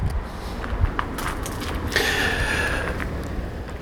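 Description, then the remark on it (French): Outdoor ambience in a garden with a steady low rumble of traffic; a car swells past midway through, its whine fading as it goes, with faint clicks and rustles. “Tu es toujours dans mon jardin, tu es toujours en train de, de me suivre à l'écoute de ma voix, mais aussi des voitures qui passent.”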